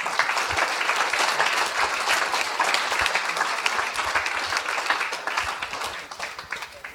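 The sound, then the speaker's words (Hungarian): An audience applauds members of the Pannon Fotóskör Egyesület photography club, whose photos accompany the short stories in a book, a dense wash of many hands clapping at an even, loud level that starts to thin out and fade near the end. “Többen is itt vannak közöttünk, úgyhogy neveket nem sorolok, de tapsoljuk meg őket is.”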